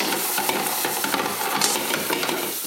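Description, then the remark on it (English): Hot olive oil sizzles steadily in a frying pan with pieces of bacon, onions and jalapenos, a dense crackling hiss with scattered sharp pops, fairly loud and continuous with no talking. “Then put a tiny extra wee splash of oil in, olive oil, and then I'm going to just, when that gets a wee bit hotter, a couple of seconds,”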